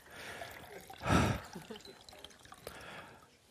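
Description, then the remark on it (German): A drink is poured into a glass for a guest during an interview: one short gush of liquid, strongest for about half a second, then trailing off against quiet, faint rustling. “Soll ich beantworten, während ja, Sie beantworten einschenken?”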